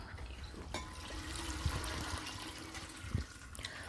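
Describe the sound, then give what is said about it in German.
Wort collected beneath a sieve is poured steadily back through the sieve onto malt for a second lautering, a continuous splashing rush lasting several seconds, with a couple of brief knocks or clinks along the way and no voices. “Also dann gießen wir das Ganze noch einmal drüber.”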